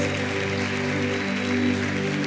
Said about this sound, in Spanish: Dale un fuerte aplauso allá al Señor, dáselo al Rey de Reyes.